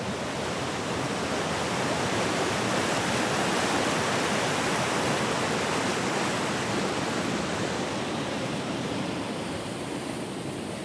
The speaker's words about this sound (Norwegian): Det her eh, vannet som er på vei ned fra fjellet gjennom et kraftverk. Gjennom et kraftverk og produsere energi til industrien.